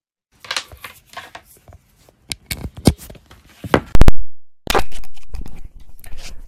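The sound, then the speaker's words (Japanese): Handling noise from a microphone being swapped for a lavalier pin microphone: irregular rustling, scraping and sharp clicks, then a loud thump, a brief cutout, and a steadier hiss of crackly rubbing. No one speaks. “えっ、ー、と、これから、えっ、ー、と、もう一つのピンマイクの方に変えてみたいと思います。”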